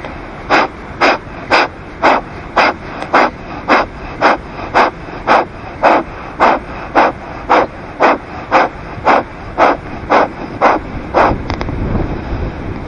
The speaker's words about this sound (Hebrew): קח שלושה סבבים של קפלה באתי. קפלה באתי התרגום שלה זה נשימת אור זורח. אנחנו לוקחים שאיפה דרך האף ונושפים נשיפות קצרות קצובות גם דרך האף. זה הולך ככה.